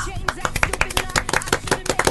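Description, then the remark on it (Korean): Loud, hearty applause from a studio audience, a dense, irregular flurry of sharp claps that keeps up steadily for about two seconds with no voices over it. “네, 오늘 박수, 박수 소리가 특별히 우렁차네요.”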